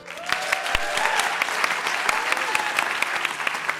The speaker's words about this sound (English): Before we go, everybody, I want you to give a huge round of applause to our panel.